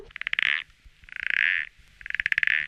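A toad croaks in three evenly spaced, buzzing trills, each lasting about half a second, close and fairly loud with brief quiet gaps between them and no voices.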